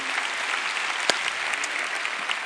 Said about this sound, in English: Um, how's everybody doing out there in North County, East County, San Ysidro, and our microsites out there? Let's give them all a big hand. God bless y'all.